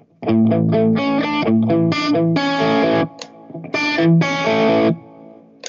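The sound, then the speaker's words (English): Electric guitar with a coil-split pickup plays a quick sequence of overdriven chords, short choppy stabs followed by two longer ringing chords, bright and gritty, with no one talking. “When you split the coil, it kind of, uh, I'm not sure if it's that clear with this setting, but it, let's hear.”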